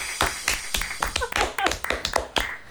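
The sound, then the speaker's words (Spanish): Scattered applause from a small audience: sharp, irregular claps overlapping unevenly for a few seconds, with a faint murmur of voices briefly showing through. “Un aplauso, por favor.”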